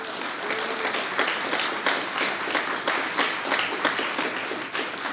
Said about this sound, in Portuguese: Vamos aplaudir Jesus pela vida deles.